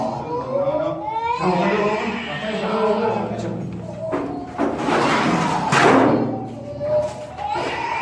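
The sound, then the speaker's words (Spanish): A child cries in wavering, drawn-out wails inside an abandoned sanatorium, mixed with thumps and scraping noises and some voices. The crying is fairly loud, rising and falling throughout. “Escuchamos un LLANTO en sanatorio ABANDONADO”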